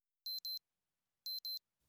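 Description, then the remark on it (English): Two pairs of high, electronic double-beeps from a digital watch, evenly spaced about a second apart, sharp and clear against silence, followed by a brief rustle at the end. “What the hell is that beeping? My watch.”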